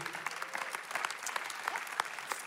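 An audience claps steadily, a dense patter of many hands with sharper individual claps popping out, moderately loud and sustained throughout without any voices.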